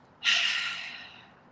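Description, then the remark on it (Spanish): A single deep, breathy exhale through the mouth following a very deep breath, starting abruptly and trailing off softly over about a second, with no talking. “vamos a hacer una respiración muy, muy profunda, más profunda de lo normal y en esta ocasión vamos a exhalar por boca”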